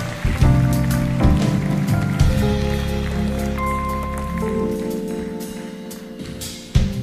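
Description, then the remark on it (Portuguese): A concert audience in Maputo, Mozambique claps steadily throughout, a dense rain-like patter of many hands, while sustained musical tones play underneath. The clapping swells briefly near the end. “Uma salva de palmas para vocês mesmo.”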